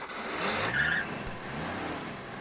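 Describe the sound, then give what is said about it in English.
A policeman's wagon engine turns over and revs up at night, its low rumble rising in pitch as it pulls away, steady amid a hiss of road noise. No one speaks. “A minute passed, and another, until the welcome sound of the policeman's wagon started up”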